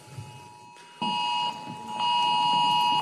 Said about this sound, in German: Das ist der bundesweite Alarm. Wunderbar.